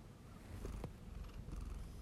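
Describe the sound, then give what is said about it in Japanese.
A very sleepy cat named DJ Maf purrs steadily and softly, a low continuous rumbling with a gentle rhythmic pulse and no talking over it. “もうすごい眠そうだね。”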